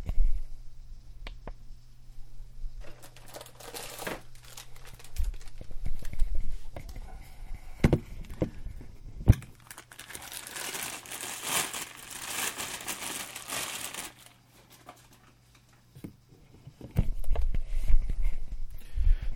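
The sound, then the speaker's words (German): A foam or furry windscreen is pushed onto a recorder microphone, making loud crinkling, rustling and scraping with a few sharp bumps, then a brief quieter stretch before more handling noise. “So, jetzt habe ich den, diesen Windschutz da drauf getan.”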